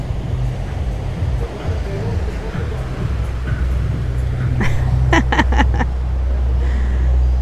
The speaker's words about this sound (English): And here comes a boat, a cute little speedboat chugging down the canal. Just thumping along.